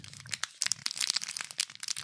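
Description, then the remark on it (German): Crisp crinkling and crackling of a fortune cookie's fancy blue plastic wrapper being opened, a dense run of rapid, uneven rustles lasting about two seconds with no voices. “Also die haben auch so eine fancy blaue Verpackung.”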